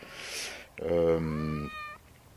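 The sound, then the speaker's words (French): A house cat lets out one drawn-out, loud meow, its pitch bending as it fades, right after a brief spoken hesitation. “ça, c'est le chat de la maison.”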